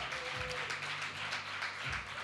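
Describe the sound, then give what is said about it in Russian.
A crowd applauds steadily, giving God loud applause, a dense wash of many hands clapping at once, while low sustained keyboard notes hum underneath throughout. “Я верю, это сезон, когда мы все вместе будем давать Богу громкие аплодисменты за то, что Он делает.”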